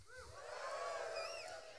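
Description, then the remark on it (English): A church audience yells out together when asked by the preacher, a dense burst of many voices shouting at once, sustained for a moment, with a few higher whoops rising above the mass. “Give me a yell if you're sitting next to somebody good looking.”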